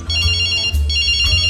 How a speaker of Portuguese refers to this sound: Ei, que barulho é esse? É as tripas roncando de fome. Que conversa é essa? Isso aí é o celular tocando e tá saindo de dentro do seu bucho. Seu guarda, esse barulho é as tripas ligando pra boca pra saber se os dedos estão de greve.